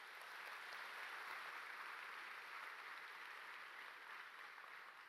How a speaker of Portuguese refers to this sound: Dê um aplauso ao Senhor, bem forte.